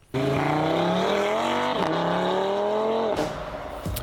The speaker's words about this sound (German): Du lässt mal schnell den Motor aufheulen heulen und dann bist du weg und hast Leute aus dem Schlaf geweckt, aber äh, finden tut dich danach eigentlich niemand.